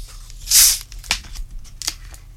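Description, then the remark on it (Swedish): A bright fizzing hiss rises for a moment as Russian Water mixer is poured onto Explorer Vodka to make a strong highball, followed by scattered small crackles and pops as the bubbles settle. No one speaks. “Och så tar vi Russian Water på det.”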